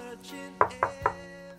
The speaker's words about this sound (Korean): 그날은 제 생일날이었는데 전 약속도 없이 혼자 집에서 텔레비전을 보고 있었습니다. 그때 갑자기 누군가 문을 두드리는 소리가 들렸습니다.